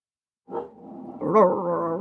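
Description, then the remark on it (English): A female dog named Snowball vocalizes in one drawn-out, tonal bark that swells louder partway through and holds to the end, with no one talking. “She's saying hello. Why don't I pause for a second and wait till she stops barking?”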